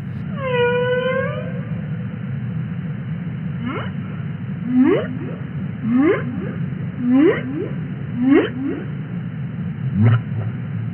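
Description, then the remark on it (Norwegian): Underwater whale calls: a few high descending whistles open, then a series of about six rising upsweeping moans repeat roughly every second over a steady low rumble. “Men en kan høre lyden ut av hval.”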